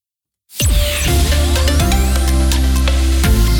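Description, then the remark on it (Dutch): A loud radio jingle bursts in after a brief silence, with bright layered synth chords, a rising sweep and deep sustained bass, like a news intro blended on top. No one speaks. “Ik kan hem ook doen uh, met nieuws en eh, zonder nieuws.”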